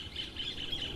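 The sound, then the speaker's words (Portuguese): A small bird sings a quick series of high, thin chirping notes in a steady run, fairly soft, over a faint background hush with no one talking. “Olha o passarinho cantando, que coisa bonita.”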